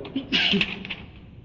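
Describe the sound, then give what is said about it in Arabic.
A single sharp sneeze: a brief, forceful burst of breathy, hissing noise with a voiced catch at its start, trailing off quickly into a faint background murmur. “رحمك الله”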